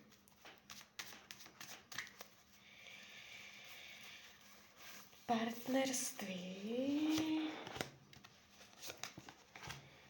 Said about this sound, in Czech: Partnerské vztahy, tady hodím další karty.